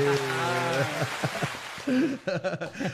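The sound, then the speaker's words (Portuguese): An applause sound effect: a steady wash of crackling clapping runs through the whole clip, with a drawn-out voice at the start and chopped-up speech over the claps toward the end. “Aê, aplauso. Bota um aplauso aí, ó.”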